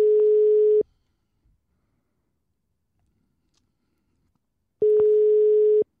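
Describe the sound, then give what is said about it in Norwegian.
A telephone ringing tone heard while calling guests: two steady, loud beeps about a second long, separated by roughly four seconds of silence, with no voices. “Jeg ringer gjestene.”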